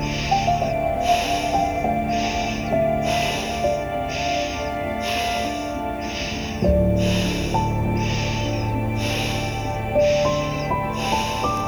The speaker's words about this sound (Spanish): Sigue respirando en ritmo sin pausa.